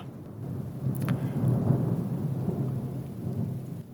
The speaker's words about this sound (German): jetzt ähm, sind hier schon die Wolken aufgezogen um unsere Hütte herum. Es donnert, das äh, verschafft unserem Gespräch auch nochmal die zusätzliche passende Atmosphäre.